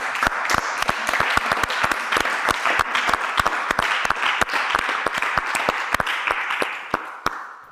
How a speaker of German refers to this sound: Applaus an meine Family ja. fürs Dasein.